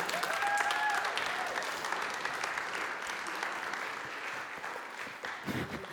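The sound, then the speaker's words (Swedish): An audience claps steadily for several seconds in applause for Gideon, a dense, sustained patter of many hands at an even loudness, with a faint whistle-like tone briefly audible near the start. “Vi, vi ger en applåd till Gideon här.”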